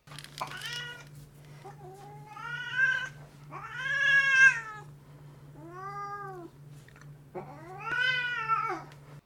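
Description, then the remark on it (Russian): A domestic cat yowls loudly beside a desk, letting out about five drawn-out, wavering cries in a row, with a steady low electrical hum running underneath. “Один из них, например, когда мой кот начал орать вдруг рядом с, со столом. Этот момент даже попал на запись.”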